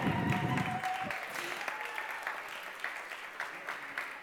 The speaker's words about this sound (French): Je vous invite donc à applaudir chaleureusement nos invités Clovis Cornillac, Olivia Bonamy